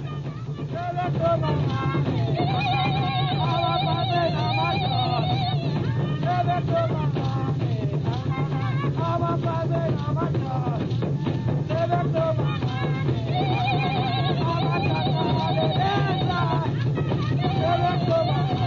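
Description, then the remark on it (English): A loud, continuous tribal mating call for fertility plays on the radio, with wavering, sliding cries repeating over a steady low drone, dense and unbroken for the whole stretch. “this, this call is used to increase the population of the tribe.”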